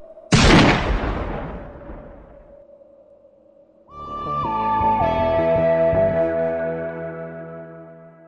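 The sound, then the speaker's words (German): A single loud gunshot, fired after repeated orders to stop singing, cracks out and rings off in a long, echoing decay; a few seconds later a steady, sustained tonal drone swells in and holds. No one speaks. “Und wieder begann er zu singen, immer wieder unterbrochen von einem Hören Sie auf, das ist ein Befehl, von dem er sich aber nicht beirren ließ, bis nach einigen Malen dem Befehl ein lauter Schuss folgte.”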